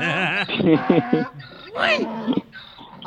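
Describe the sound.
A person loudly imitates a donkey's bray, with a strained nasal wail followed by a rapid series of rhythmic hee-haw pulses and a rising, sliding cry.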